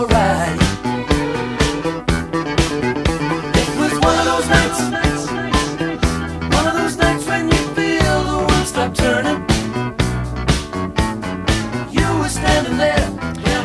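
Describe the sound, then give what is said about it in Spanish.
A full band song plays loud and steady, driven by a prominent, bouncing bass line under crisp drums, keyboards and layered vocals with a strong regular beat. “Otra línea de bajo totalmente reconocible a donde la escuches.”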